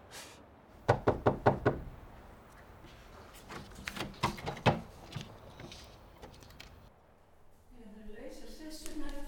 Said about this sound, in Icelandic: bankaðu nú.